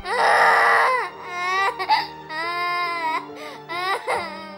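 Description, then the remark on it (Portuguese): A young child cries loudly in several long, high-pitched wails, the voice wavering and breaking between bouts, with brief gasping pauses and no other talking. “pegou a criança que chorava no colo enquanto afagava seus”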